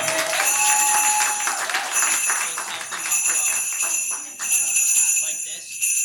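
A burst of audience applause at the Winter Wonder Jam for a volunteer about to play sleigh bells, a steady wash of many hands clapping for about six seconds, with faint high ringing tones sustained above the claps and no talk over it.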